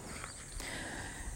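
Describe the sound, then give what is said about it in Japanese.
Faint, steady insect chirping outdoors in the mountains, a thin high trill running continuously under soft rustling and a few light footsteps, with no talking. “なのでちょっとあの虫の鳴き声、鳥の鳴き声、えー、心地いいね、自然の中で今あと収録をしてみました”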